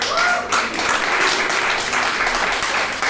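A crowd applauds steadily, a dense, continuous wash of many hands clapping at even loudness for a few seconds, with faint voices mixed in underneath.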